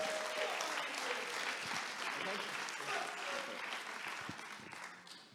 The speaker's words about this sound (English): Give him a big round of applause.